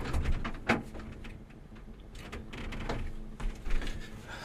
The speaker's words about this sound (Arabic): لانه بس سكرت الباب لانه عم بيجي اصوات من برا لعندي